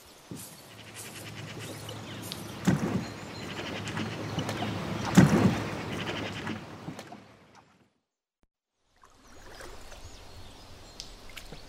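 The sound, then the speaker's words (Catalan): A boat bound for Tarragona moves through water with a steady low engine hum, splashing and sloshing swelling in the middle, then a brief silence before the watery churning resumes more softly. “Doncs vinga, tracte fet. Cap a la barca.”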